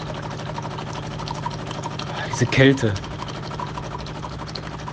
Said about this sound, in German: Mein Auto ist ja nicht angesprungen genauso wenig wie diese Folge hier. Sobald man den Schlüssel rumdreht, zündet. Da macht sich die Motorleistung echt rar.